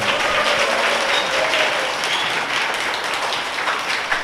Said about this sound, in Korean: 그리고 김진애 선생님 박수로 환영해 주세요.